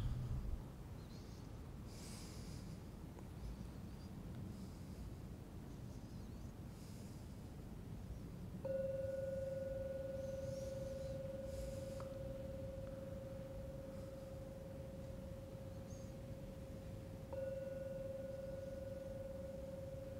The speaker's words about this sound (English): I will now ring the gong three times. Please even listen to the sound of the gong. What is sound? And after the third ringing, you may open your eyes.